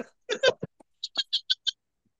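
A person coughs in a quick run of short, harsh bursts, a rougher cluster first and then about five evenly spaced hacks, with no talking.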